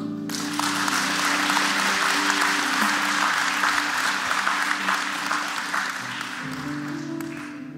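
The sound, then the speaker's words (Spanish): A crowd applauds steadily for several seconds to welcome a little girl being presented before the Lord, a dense wash of clapping that holds loud throughout, with a faint sustained tone underneath, before tapering slightly toward the end. “Le damos un aplauso.”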